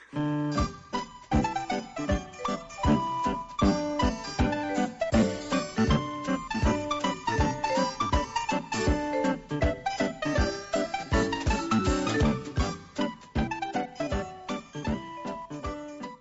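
A short instrumental song plays alone between news items, with bright, steady melodic notes over a busy rhythmic pulse that keeps an even loudness throughout.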